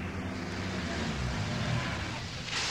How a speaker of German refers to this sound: Da kommt jemand mit dem Auto den Waldweg herunter.